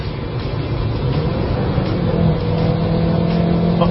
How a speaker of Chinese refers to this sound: 看着发动机的活跃。但同时也有很大的噪音，哦，六千多红线区了，表现依旧稳健。